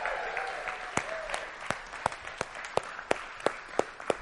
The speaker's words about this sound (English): we're clapping for you, by the way, not for him.